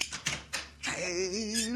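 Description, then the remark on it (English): A few sharp, crisp mechanical clicks of the catch of a hidden secret panel door in a corridor wall snapping open, followed by a sustained voice sound. “As I thought, a secret panel door is in this corridor wall. Unless I miss my guess, the door catch is right there under that bulge.”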